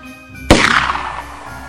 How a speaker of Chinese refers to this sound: 巨大的枪声震动场上所有人的耳膜。枪弹准确地击中牛的肋骨，那头牛一下子就倒下去了。